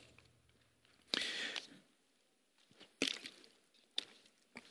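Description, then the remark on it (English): Someone takes a drink of water: a rustling, splashy burst followed by a few short, quiet gulping and clicking mouth sounds, with no talking. “so I was a little thirsty, so I took a drink of water right there.”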